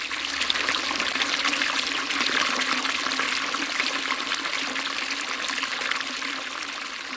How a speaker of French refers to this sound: C'est un endroit qui est assez merveilleux parce qu'il est euh, traverser de multiples petits ruisseaux et que chacun de ces ruisseaux ont un champ différent. Donc on peut faire 300 mètres et écouter un chant différent.